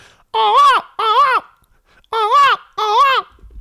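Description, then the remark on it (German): A person's voice imitates a toucan call: four loud, nasal, rising-and-falling croaks delivered in two quick pairs, with no talking around them. “aus irgendeinem Grund kann ich so eine, wie heißen die, Tukan, so Dschungelvögel.”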